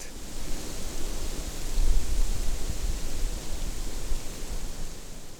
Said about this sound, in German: Der Klang der kleinen Blätter der Hängebirke hingegen, die an den beweglichen Trieben hängen, verschwimmt und ergibt ein dichteres Rauschen, das eher an einen Wasserfall erinnert.